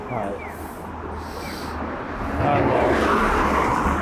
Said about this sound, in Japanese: ここちょっと、信号、車がうるさいところだと思いますが、ちょっとお待ちください。